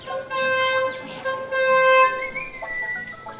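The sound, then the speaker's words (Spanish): A street bread vendor's reedy horn toots in two long, wavering blasts, the second rising slightly in pitch, over faint street background noise with no talking. “Así también como con muchos panaderos que pasaban o gritando el pan o tocando la chicharra, sabías que si era tu panadero de confianza o era otro.”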